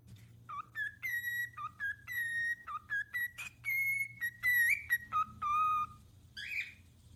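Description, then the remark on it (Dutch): A person whistles a lively, tuneful video game melody, with quick pitch jumps and short held notes in a bouncy rhythm over a low background hum, no talking. “En ik kan een heel mooi nummer fluiten voor je.”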